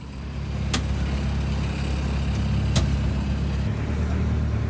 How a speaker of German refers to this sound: Sein Kollege Bernhard Heimberger fährt mit der kleinen Diesellok und den drei Wagen in den Park hinein – Gut zweieinhalb Kilometer schlängeln sich die Schienen durchs Grüne.